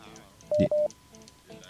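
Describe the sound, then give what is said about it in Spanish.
Two short, loud electronic beeps from a phone line during a failed attempt to connect a call, back to back at a steady pitch, standing out over a faint murmur of background talk. “hay un pitido en el que no se puede, no nos podemos comunicar.”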